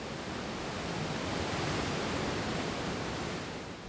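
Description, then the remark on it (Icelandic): A steady, dense roar of rushing water fills the whole clip, broad and unbroken like a large waterfall, with no voices. “Mér finnst þessi foss rosalega fallegur en hann getur líka verið hættilegur og það þarf alltaf að fara varlega.”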